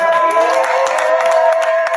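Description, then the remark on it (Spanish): A crowd cheers loudly and steadily, high-pitched whoops and shouts blending into a sustained roar, with scattered claps cutting through for the full two seconds. “con un aplauso en la boca.”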